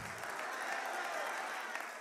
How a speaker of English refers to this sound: Keep clapping while I'm breathing. No, I'm just joking.